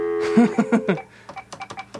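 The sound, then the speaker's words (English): A rapid run of telephone keypad dialing tones, about a dozen short beeps in quick succession, the first few louder and fuller, the rest lighter and evenly spaced, with no voices. “Alright, I gotta dial like 100 numbers to do this.”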